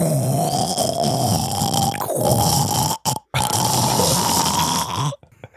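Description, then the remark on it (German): A voice imitates the speaker's own coffee machine with a sustained, gurgling, rasping drone, steady and loud, broken by a brief gap near the end before a final sputter. “Oder meine Kaffeemaschine macht.”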